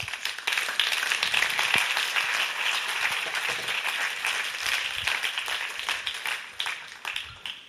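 Audience applause, a dense steady wash of many hands clapping that holds at an even level for several seconds before gradually tapering off, with no voices standing out.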